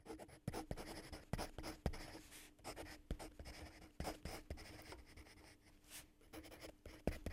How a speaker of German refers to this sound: Was schreibst du da? Ich schreibe hier nur meine Weihnachtsliste. Aber die ist schon sehr lange.